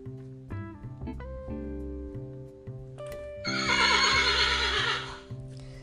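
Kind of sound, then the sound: animal, horse neighing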